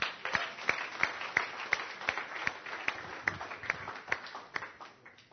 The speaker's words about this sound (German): Dürft einen fetten Applaus geben den Leuten.